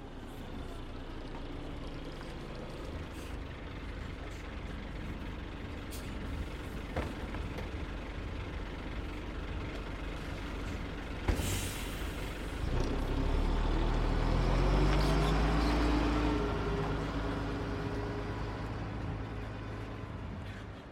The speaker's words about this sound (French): allez, venez, suivez-moi, on va prendre le bus, direction Vitry-sur-Seine.